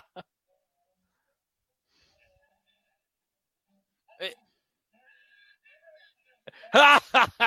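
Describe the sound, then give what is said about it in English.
A single quick, breathy sneeze from a man bursts out of near silence, followed a few seconds later by louder voiced vocal sounds. “he sneezed.”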